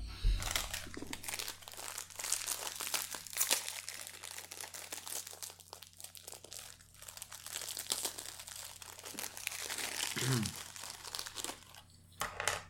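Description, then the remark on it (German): A plastic cookie wrapper crinkles and crackles continuously for several seconds as it is worked open, with sharp rustling bursts and a low steady hum underneath. “Dann würde ich jetzt mal den Feldcookie öffnen.”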